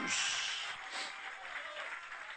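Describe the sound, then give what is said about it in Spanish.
An audience claps in praise to Jesus steadily for a couple of seconds, a dense, crackling wash of many hands that stays fairly loud throughout, with no voices standing out. “Dale ese aplauso de alabanza, Jesús.”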